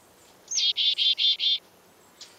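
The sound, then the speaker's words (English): A chickadee gives a quick run of five buzzy, evenly spaced call notes, the first slightly higher, against a quiet background with no talking. “The watchdog chickadees alert the close focused woodpecker when there's danger.”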